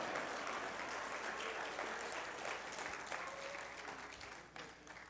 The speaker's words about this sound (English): And uh, uh, if you're going to clap, go on and clap. Don't give me no patty cake. Come on.